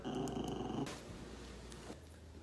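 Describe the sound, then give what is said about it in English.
A dog named Veronica growls low and rumbling for just under a second, then fades into quiet room noise with a faint background hum. “You saw that growl come out of Veronica.”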